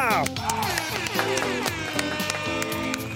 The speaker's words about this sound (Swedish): Och som vanligt kör vi en applåd och en liten tuta på det!